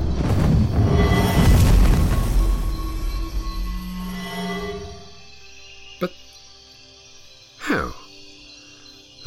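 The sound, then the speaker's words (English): A loud, roaring magical spell blast cast by Abaddon surges for several seconds and fades into a low hum, followed by a sharp crack and a quick descending zap as a simple energy shield deflects it. “I used a simple energy shield to block your spell.”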